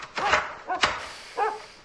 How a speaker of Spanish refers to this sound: ¿Qué es ahí, weón? es alborotar a los perros a esta hora. Mejor cierro doble.